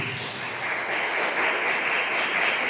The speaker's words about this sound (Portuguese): Dê uma salva de palmas para Jesus, irmão.